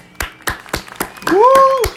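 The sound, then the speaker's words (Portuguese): A round of applause made of about seven slow, evenly spaced, sharp claps. A sustained high whooping tone joins over the last few claps. “Uma salva de palmas aí pro Karl Marx e pro Elon Musk, as grandes estrelas do episódio.”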